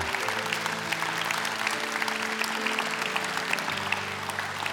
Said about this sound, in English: Yeah, give them, give them a hand, and, and they're making their way. Go, just give, just continue to cheer them on.